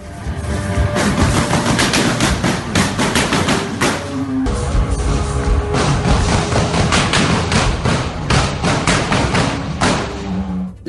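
Loud, sustained automatic gunfire crackles in rapid bursts of sharp shots for about eleven seconds during the November 2015 terrorist attack on the Bataclan concert hall during a concert, with a brief lull partway through and no speech, echoing inside the hall.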